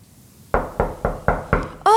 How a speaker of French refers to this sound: Quelqu'un frappa la porte.